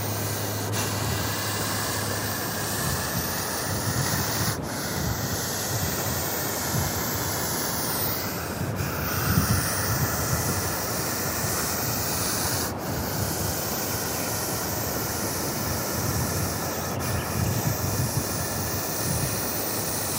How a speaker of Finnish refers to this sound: äänitehosta kuuluu kyyn mm. sähinää, sihinää. No mun piti juuri sanoa, että minäkään en ole tänään sitä kyytä nähnyt, jos, jos ei se olisi su, suhissu niin kovasti. Joo, mm. se häirittää, jos pitää tällaista ääntä.